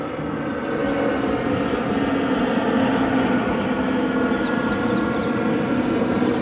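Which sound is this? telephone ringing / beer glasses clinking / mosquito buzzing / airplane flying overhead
airplane flying overhead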